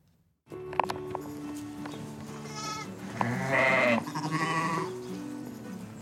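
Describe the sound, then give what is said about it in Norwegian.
Sheep bleating outdoors on treeless green grassland in the Faroe Islands, with long, wavering calls toward the middle. Underneath is a steady background of low rustling and movement as a sheep wearing a wide black belt grazes and wanders, with a few soft thuds like hooves. “Med jevne mellomrom stanser hun bøyer hodet og gresser litt, før hun vandrer av gårde på grønne sletter.”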